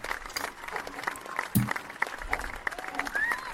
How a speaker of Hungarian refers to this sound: Nagyon tapsolnak, gyerekek, nem, nem tudom leállítani őket.